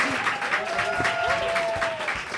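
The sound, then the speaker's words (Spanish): Audience applause, a steady dense clatter of many hands clapping at moderate loudness, with a faint sustained whistle-like tone drifting through the middle of it. “Así que un aplauso para despedida Mara y para dar ya bienvenidas moradas.”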